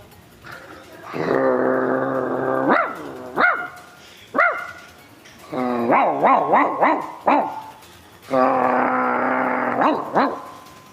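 Dogs growl and bark loudly, with long drawn-out snarling growls broken by bursts of sharp, rapid barks and yelps, then another sustained growl near the end.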